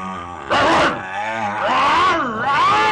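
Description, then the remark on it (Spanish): A loud animal roar with a bear-like growl, rising in several harsh, sustained bursts with rough harmonic rumbling and no speech. “Estaban a pocos kilómetros de la ciudad más cercana, cuando se encontraron con un espantable oso peludo y gruñón.”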